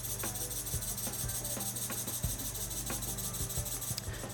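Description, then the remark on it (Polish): Wires vibrate inside a drinking glass, making a steady, raspy buzz with a low hum underneath and scattered small clicks and ticks throughout. No one speaks. “No, dość solidna ta wibracja jest.”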